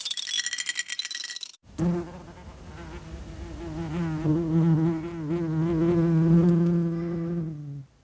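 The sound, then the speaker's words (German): A short rattling clatter, then a house wasp buzzing for about six seconds, a steady droning hum that wavers in pitch and swells slightly before cutting off. “Und ich hoffe, unsere Hauswespe hat sich äh, behauptet. Oder ist jetzt eine neue?”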